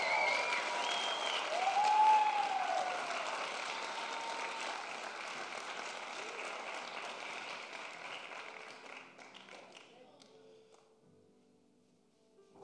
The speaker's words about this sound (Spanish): Vamos, a darle un mejor aplauso al Señor.